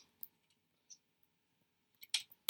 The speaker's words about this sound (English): I'm just typing in horny.